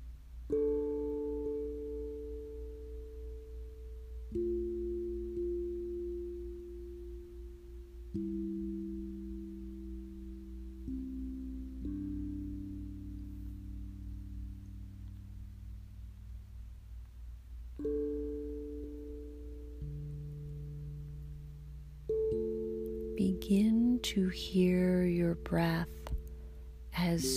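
Soft ambient background music for a guided yoga nidra session to calm anxiety: sustained, slowly shifting chords over a steady low drone, calm and even in volume, with a brighter shimmering texture entering near the end. No one speaks.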